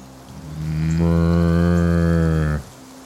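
A single long, loud cow moo, starting low and swelling into a sustained bellow for about two seconds before cutting off, with faint background noise.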